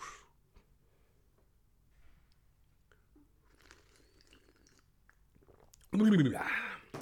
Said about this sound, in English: Anyway, uh, quick sip of coffee, coffee break bowls. Don't mind me, boss.